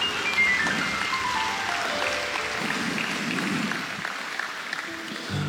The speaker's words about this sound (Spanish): Vamos, dale un aplauso al Rey de Reyes.